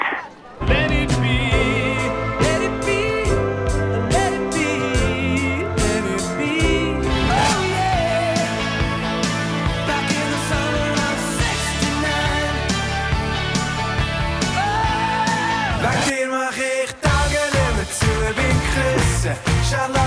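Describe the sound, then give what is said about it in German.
A quick medley of songs of the kind sung around a scout campfire, played back as a music quiz, loud and continuous, with voices singing over full instrumental backing and abrupt cuts from one song to the next. “habe ich einen Musiksalat für dich, den ich dir jetzt dann gerade abspiele.”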